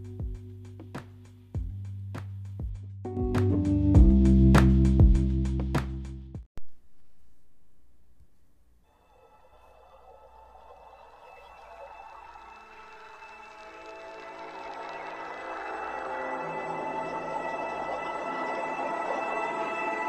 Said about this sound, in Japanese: ちょっと背景にバックグラウンドの音楽を流しながら話してみたいと思います。こちらです。